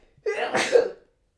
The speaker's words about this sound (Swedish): Och så kom det en nysning på det för jag är allergisk mot larm.